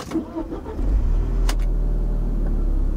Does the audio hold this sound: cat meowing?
no